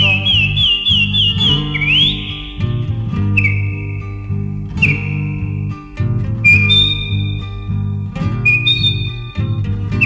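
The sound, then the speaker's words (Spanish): A man whistles a shrill melody of wavering and sliding notes in short phrases above a steady, full musical accompaniment with a low bass and guitar-like backing. “Los pajaritos del monte lo saludan al pasar y el peoncito va silbando, soñando con sus hijos”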